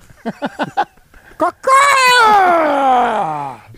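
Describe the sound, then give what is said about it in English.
A voice mimics a flamingo call with a wet gargling sound: four quick choppy bursts, then a long, loud, warbling groan that slowly slides down in pitch. “What are you gargling back there?”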